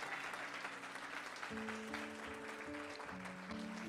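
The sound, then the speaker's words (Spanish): An audience claps steadily, giving applause to the Lord, a dense wash of applause throughout, while sustained organ or keyboard chords enter partway through and shift pitch beneath it. “Alguien que le dé un aplauso, alguien que tenga un testimonio y que le dé un aplauso al Señor.”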